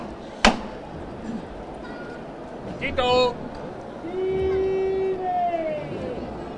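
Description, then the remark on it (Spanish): A Holy Week procession float in Jaén, with rosaries hanging from its carrying poles, is lifted: one sharp knock rings out over a crowd's murmur, followed by a brief burst of noise with a raised voice and sustained, wavering tones. “esos rosarios que vemos como cuelgan de, los varales y que van que van dando y ese sonido tan característico que, que ya decíamos antes y vamos a escuchar la levantada.”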